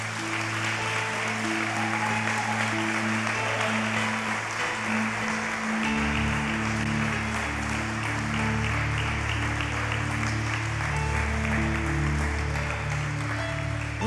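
A crowd applauds steadily and loudly for the whole stretch, a dense wash of clapping given as a round of applause for a church brother, while sustained keyboard chords hold underneath.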